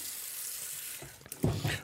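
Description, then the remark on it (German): Cabbage is pressed and squeezed down into salted water in a bowl, a soft fizzing hiss giving way to a few louder wet, crunchy squelches near the end. No one speaks. “Und da wird dann der Kohl richtig reingestemmt”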